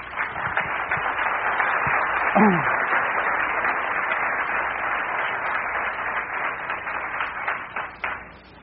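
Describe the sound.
A crowd applauds steadily for about eight seconds, a dense crackle of many hands clapping, with a brief voice or cheer rising out of it early on before the clapping tapers off.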